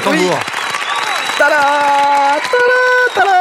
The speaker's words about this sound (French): Applaudissements